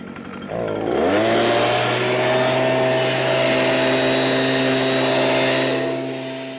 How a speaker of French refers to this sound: Car outre le fait que les souffleuses à feuilles consomment du carburant, polluent l'atmosphère et dégagent des nuages de poussière, elles font un boucan d'enfer.